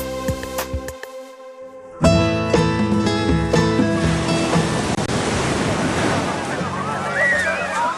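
Waves lap and wash steadily against the shore at Qixingtan in Hualien County, Taiwan, a continuous hissing surge that builds after a brief lull, with sustained musical tones layered over the water.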